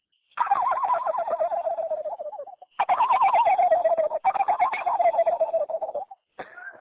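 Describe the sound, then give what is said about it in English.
A person imitates a turkey gobble with their voice: two long, rapid, warbling rattles, each descending in pitch, loud and without other talk, followed by a short clipped burst at the end. “special gobbles that he got in his arsenal there.”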